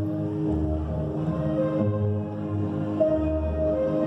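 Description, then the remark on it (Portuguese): Music from a ballet performance, taken from a video: sustained, layered orchestral tones with a rich low end and a brighter melodic line rising near the end, playing at a steady moderate volume with no voices. “Oi, o que você está ouvindo é uma apresentação de balé.”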